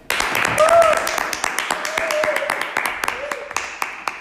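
A small studio audience claps for several seconds to welcome three student guests, a dense patter of hand claps with a few sharper individual claps, accompanied by faint cheering whoops in the background.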